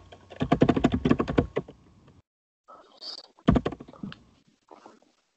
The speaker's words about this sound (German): Tipp nicht so laut. Ich kann leider nicht leiser tippen. Da hämmert bei eine Taste, wa?